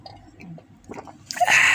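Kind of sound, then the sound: human body sound, drinking water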